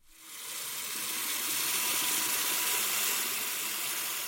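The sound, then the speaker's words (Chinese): A water tap runs steadily into a filling bathtub, a continuous hissing rush that swells in over the first half second and then holds at a strong, even level without any voices. “他打开水龙头，浴缸里的水慢慢满起来。”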